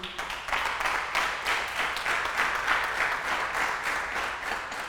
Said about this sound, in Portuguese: Você podia dar um aplauso a ele aí?